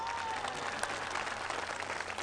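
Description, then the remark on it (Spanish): A crowd applauds migrants steadily, a dense wash of clapping hands that stays loud and even throughout, with no single claps standing out. “Un aplauso a los migrantes”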